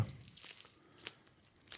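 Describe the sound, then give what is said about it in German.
Adhesive tape peels away from silicone in a quiet, crackling tear, with a few sharper crinkly snaps scattered across the short pull, with no voices. “Ähm, genau, einfach zwischen Klebeband und Silikon und äh, das Klebeband entfernen.”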